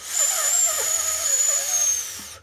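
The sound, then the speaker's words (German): A single long, steady intake of air sucked in through pursed lips as part of a calming breathing exercise, fairly loud, with an airy hiss and a thin whistling tone running through it for about two seconds. “einatmen, Luft einsaugen warten, die Luft abschlucken und durch die Nase aus.”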